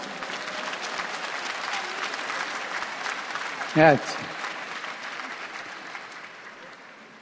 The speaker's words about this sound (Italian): Chi di voi si chiama Antonio? Eh, un applauso a tutti gli Antoni.